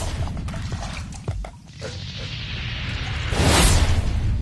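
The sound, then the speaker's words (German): A low rumbling churn builds, then erupts into a sudden loud hissing, spraying burst as superheated water in a glass flashes into boiling and a fountain shoots out. No one speaks. “Plötzlich fängt das Wasser an zu kochen. Schlagartig schießt eine Fontäne raus.”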